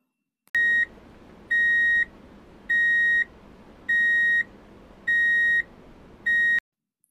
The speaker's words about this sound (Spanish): Hoy es otro nuevo día en Ayasab, donde nuestros amigos Aonin y Ala, que se han despertado con la alarma del despertador,